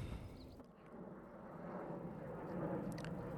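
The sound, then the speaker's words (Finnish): An airplane drones overhead in the background on an early summer day as a low, steady rumble that swells slightly toward the end, faint and continuous with no voices. “taustalta kuuluu lentokoneen ääni ja se omalla laillaan sopiikin tähän”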